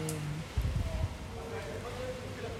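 Soft, steady hiss of rain outdoors with low rumbling street sounds, a few muffled thumps early on, and faint tones drifting underneath, all fairly quiet and diffuse.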